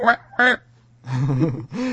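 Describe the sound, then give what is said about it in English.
A person imitates a duck with two short, nasal quacks, then a longer, raspy drawn-out quack and the start of another, fairly loud. “I, I, I was trying to make a duck sound.”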